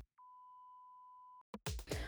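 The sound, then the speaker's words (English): A single steady electronic beep used as a transition between scenes, a pure mid-pitched tone held for just over a second at even loudness, then cut off abruptly and followed by a short burst of louder, rougher noise. “And um, hey, do you guys like that beep sound in between scenes? This one?”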